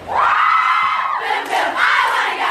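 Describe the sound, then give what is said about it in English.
Young women of a sorority at Florida Gulf Coast University chanting loudly in unison, their high, sustained voices carrying two drawn-out phrases with a brief dip between them, energetic like a cheer. “They have an 18% graduation rate and they lead the nation in synchronized sorority chants. Let's hear one now.”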